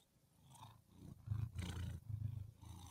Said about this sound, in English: Listen to that kitty motor purr.